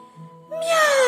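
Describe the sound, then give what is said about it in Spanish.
A single drawn-out meow, voiced by a person imitating Wilbur the cat, rising loud after a brief quieter tonal lead-in. “¡Miau! maulló Wilbur.”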